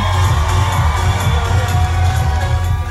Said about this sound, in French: Il est 9h du matin et c'est une ambiance de fête avec musique et 500 fans présents. Banyama arrive sur scène.